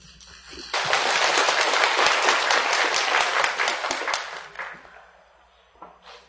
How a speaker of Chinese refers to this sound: 哦，我觉得这就是李娟带给我们的精彩。为这一点，我们要为她鼓掌。